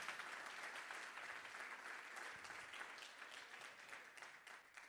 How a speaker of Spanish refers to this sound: Alguien dice, alguien que, alguien que me ayude y le dé un aplauso al Señor.